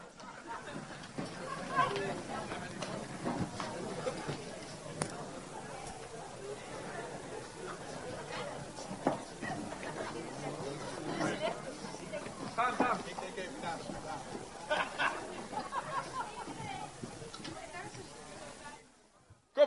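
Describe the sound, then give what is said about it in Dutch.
A crowd of people running outside to look at the sky and then back in, with scattered footsteps and a steady murmur of overlapping chatter throughout, busy, ending abruptly. “Ik wil iedereen vragen op dit moment naar buiten te rennen.”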